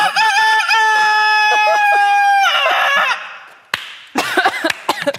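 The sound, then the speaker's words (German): A person loudly imitates a rooster's crow with one long, strained cock-a-doodle-doo lasting about three seconds, followed by a pause and then a burst of laughter. “Ich kann einen Hahn machen.”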